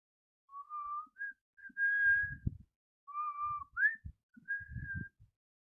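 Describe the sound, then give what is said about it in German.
Someone whistles a slow melody resembling the wedding march, in clear sustained notes with short pauses between phrases, accompanied by soft low thumps, heard in an apartment. “Sie malte sich alles aus, als sie plötzlich ein Pfeifen hörte.”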